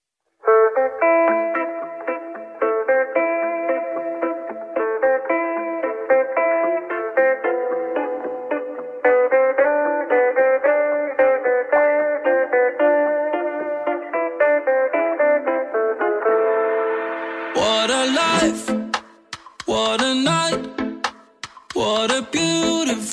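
A pop song plays on the radio, opening with a bright, steady melodic instrumental line before the full arrangement with punchy drums bursts in near the end. No one talks over it.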